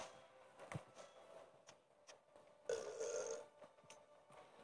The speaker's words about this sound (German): Digga, den Emote, den hätte ich so geil. So gern diesen Rülps-Emote. Der passt denn sogar zu mir.